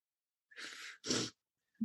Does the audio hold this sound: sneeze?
yes